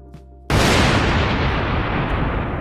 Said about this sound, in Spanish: En aquel preciso instante, un relámpago zigzagueó en el aire, desgarrando la oscuridad y casi inmediatamente estalló un fragoroso trueno.